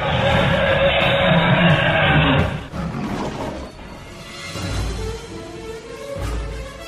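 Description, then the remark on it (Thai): A lion roars loudly, a rough, rumbling roar that fills the first couple of seconds, followed by lower growls and grunting breaths that fade and swell. “ก็แสดงบรรลือสีหนาดคำรามก้องภูผาดุดฟ้าร้อง”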